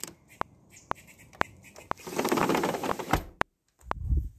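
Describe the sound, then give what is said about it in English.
A bird calls outside a window, faint and muffled, alongside a steady series of sharp clicks and a brief swell of rustling noise; no one speaks. “Hang on, I've got some bird out this window.”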